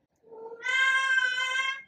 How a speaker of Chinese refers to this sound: 天呐，我的猫，天呐，他讲我不讲了